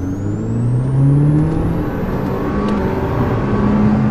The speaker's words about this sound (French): Et oui, on est loin du bruit habituel de la voiture de gendarme puisqu'il s'agit d'une Alpine A110, vitesse de pointe 270 km h Elle peut atteindre les 100 en un peu plus de 4 secondes.